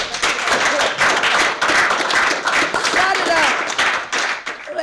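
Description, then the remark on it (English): A small group claps steadily for about five seconds, sparse, uneven hand claps overlapping rather than building into full applause, with some faint voices mixed underneath. “Uh, ten, ten people in that AA meeting ass clap.”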